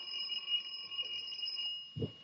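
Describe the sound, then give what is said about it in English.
A bell rings continuously for about two seconds, a bright, high metallic ringing with a steady buzzing shimmer, ending with a low thump near the end. No voices. “Here, I'll ring the bell.”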